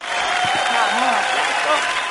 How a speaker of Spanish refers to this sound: Aplauso para vos.